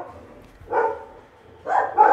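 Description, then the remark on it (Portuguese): Dogs bark in short bursts: one bark, a pause, then two more in quick succession, moderately loud over a low background murmur. “Eu, eu, os cachorros latindo.”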